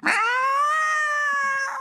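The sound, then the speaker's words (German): A voice imitates the yowl of cats mating: one long, loud, wavering wail held for nearly two seconds, with a harsh onset and no other talk. “Kennst du das auch, wenn sich Katzen paaren?”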